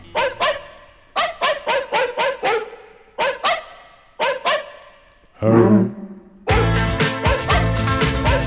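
Dogs bark in quick rhythmic bursts of four or five, loud, forming a musical pattern; after a brief pause a full, dense music track kicks in. No one speaks.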